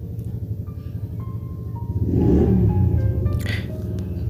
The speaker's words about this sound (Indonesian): sorry ada suara itu motor